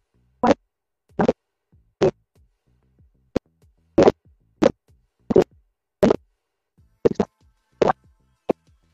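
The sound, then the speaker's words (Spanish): Harsh bursts of digital crackle break up a phone call, about a dozen short, loud pops at irregular intervals with near-silence between them and no voice coming through. “estás chirriando ahora.”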